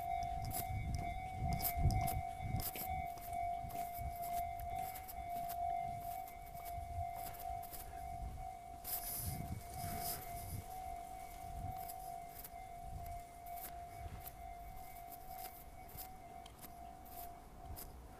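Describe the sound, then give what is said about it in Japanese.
A railway crossing warning bell rings steadily and loudly beside a road with heavy car traffic, its repeating ding sustained throughout, with rumbling traffic or street noise underneath and no one speaking. “車通りの多い道のほぼ歩道を歩くのはうるさいから嫌だっていうふうに言われてたんですけどそれの意味がやっと体感できたというところです踏切の音とか普通にうるさいですね”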